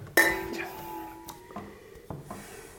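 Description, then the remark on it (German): Two wine glasses clink together once in a toast, a bright ringing tone that lingers and slowly fades, followed by a few softer taps and knocks. “Prost. Prost. Danke.”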